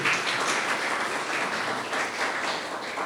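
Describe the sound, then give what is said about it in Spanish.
An audience applauds their Lord and God in a steady, dense wash of many hands clapping at once, sustained and fairly loud for a few seconds with no voices standing out. “Aplaudan a su Señor y a nuestro Dios.”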